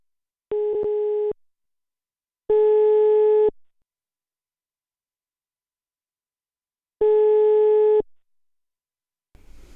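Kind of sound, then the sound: signal or alarm, telephone ringing tone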